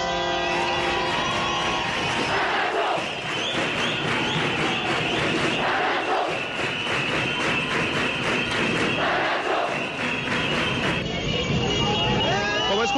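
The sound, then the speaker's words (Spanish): A crowd of about a thousand protesters under the bridge at Carrera 30 and Calle 26 shouts chants of "La Nacho" in a steady rhythm, the massed voices surging every few seconds over a constant loud roar, with a boomy echo. “muchísima gente, cerca de mil personas. qué es, lo que gritan,”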